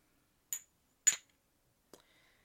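Glasses clink together in a toast, three bright, sharp taps about half a second apart, each with a short ringing tail, otherwise quiet.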